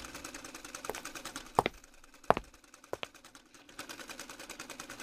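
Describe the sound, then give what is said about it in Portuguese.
Sewing machines stitching a three-point zigzag in a sewing class, with a steady, rapid mechanical ticking that runs throughout, broken by a few sharper clicks and clunks near the middle. Fairly quiet, with no one talking. “Cada uma sente na sua máquina de costura que nós já vamos começar.”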